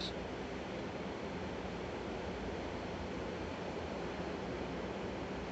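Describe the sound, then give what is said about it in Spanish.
A steady, full roar of ocean surf washes on without a break, dense and even in loudness like waves rolling onto a shore, with no voices present. “Te pido por favor que escuches la naturaleza, la fuerza del mar.”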